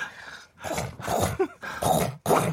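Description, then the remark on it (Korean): A person imitates a subway train with their voice, making four growling, rumbling bursts separated by short pauses. “이건 지하철 소리입니다. 아, 이건 지하철 소리죠.”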